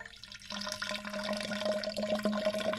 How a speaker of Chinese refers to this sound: 端端会在他倒水的过程当中，也来读出他现在倒水的目前的容量是来到了多少的指数